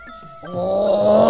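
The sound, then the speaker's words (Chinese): A lion lets out a long, sustained roar, a deep, harmonically rich bellow that begins quietly, then swells and holds loud to the end, with no one talking. “就在这时啊，狮子唱歌了。”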